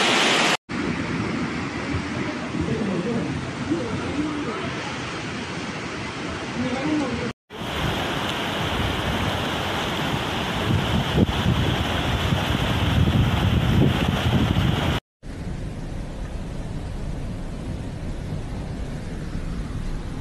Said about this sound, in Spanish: Salió el río, señores, se salió el río del del Castaño, la avenida principal. No es coba, señores.